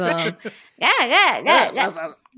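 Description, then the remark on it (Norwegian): An adult voice imitates a German baby crying, opening with a short flat cry and then rising-and-falling wails in an arching, sing-song melody. It is fairly loud, with no other sounds. “Hvor du kan høre forskjell på tyske og franske babyer.”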